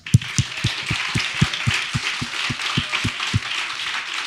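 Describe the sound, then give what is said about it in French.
Steady rhythmic applause from an audience, a dense wash of clapping with a regular low thump beating underneath at a quick, even pace, with no voices. “mesdames et messieurs, j'aimerais ça qu'on donne une bonne main d'applaudissement.”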